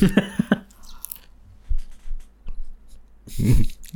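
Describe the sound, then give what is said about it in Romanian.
Crunchy chewing of popcorn, a quick run of crisp bites at the start, then softer irregular munching and a final louder crunching burst, with no talking. “Nu, să nu se audă când mănânc floricele.”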